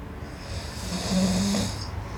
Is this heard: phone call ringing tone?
no